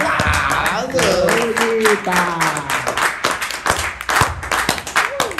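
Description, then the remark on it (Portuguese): Brisk, steady applause with many hands clapping in a dense, crackling patter for several seconds, while voices call out and chatter over it. “E aplausa!”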